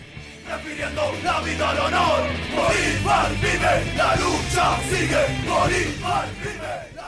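A skinhead band performs a military hymn: a rough chorus of voices shouts the melody in steady, rhythmic phrases over dense backing, loud and unbroken from start to finish.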